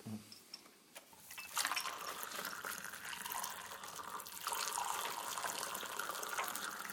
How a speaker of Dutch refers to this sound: Ik zal eerst een kop koffie inschenken.